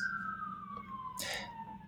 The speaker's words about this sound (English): i don't know if you can hear the siren in the background can you yeah, it's uh, the charm of new york city right